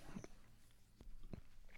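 Wet mouth chewing sounds of someone chewing up porridge, with a few sharp smacking clicks spaced irregularly over a low, steady background, with no talking.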